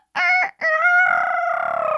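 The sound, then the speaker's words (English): A person's voice mimics a rooster's crow: a short harmonic burst, a brief gap, then a long sustained call ending in a rapid fluttering trill like a rolled tongue, imitating a rooster that sounds as if it has a Spanish accent. “and what I mean is, I'll try to recreate it.”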